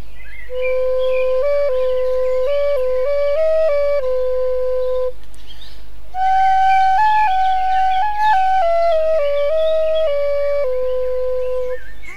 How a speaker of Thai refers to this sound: หมาป่าได้ตอบตกลุง ตามข้อร้องขอและได้เป่าปี่ให้ลูกแกะฟัง